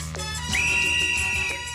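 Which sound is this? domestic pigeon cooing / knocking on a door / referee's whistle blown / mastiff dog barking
referee's whistle blown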